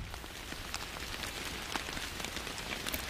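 Steady rain falls with a dense, even hiss, sharp drops pattering on a hard surface throughout, with no voices.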